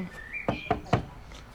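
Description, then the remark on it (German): Three quick, fairly crisp knocks on wood, spaced about a quarter second apart, with a faint whistling tone just before them. “haben gerade auf Holz Wünschst geklopft.”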